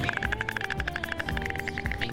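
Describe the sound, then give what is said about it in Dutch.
Rapid, steady clattering of a white stork, a fast run of dry wooden knocks repeating for a couple of seconds at moderate loudness, with no voices. “Is dat een ooievaar? Ja.”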